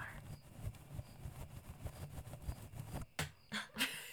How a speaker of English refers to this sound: in case it didn't come across, I brushed the microphone with the fluffiest paintbrush.